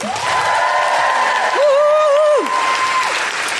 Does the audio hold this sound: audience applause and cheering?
yes